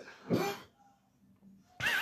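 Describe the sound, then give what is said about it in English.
A person coughs as they lean forward to reach for a cup: two harsh, loud coughs, each a short rough burst, separated by a brief quiet pause with faint background noise. “It's every time I lean forward to reach for the fucking cup, I start coughing.”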